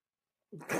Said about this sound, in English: What? The cat opened the door. the cat opened the door. You know what? This cat is something else, man. She really is.